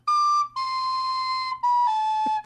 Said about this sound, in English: playing the Avengers themes on the recorder